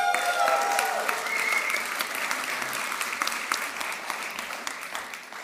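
Loud, sustained applause from an audience as two people are called to the front, a dense wash of clapping that holds steady for several seconds and eases slightly toward the end, with faint whistles early on.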